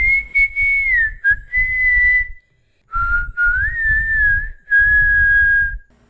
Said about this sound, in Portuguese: Então, em um determinado momento, o assobio chegou tão perto que parecia vir do outro lado da porta de fora da sala, bem na varanda.